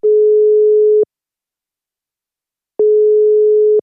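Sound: telephone ringing tone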